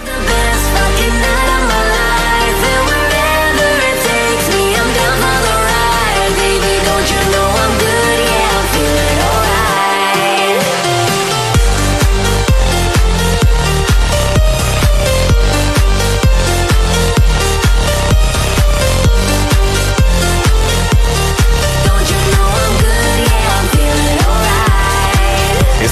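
A loud dance-pop remix plays with layered synths and a brief breakdown near the middle, after which a steady, pounding four-on-the-floor beat kicks in and drives the rest of the track.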